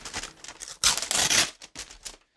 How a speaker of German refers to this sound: Komisch, der Brief hat sich fast wie ein Reißverschluss angehört. Nee, das war tatsächlich. Ja, wie, ein, wie ein Klettverschluss.